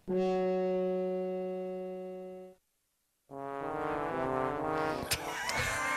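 Loud, droning horn-like tones with rich harmonics hold for a few seconds, break into silence, then return as a denser, clashing, out-of-tune blare with sharp clicks near the end.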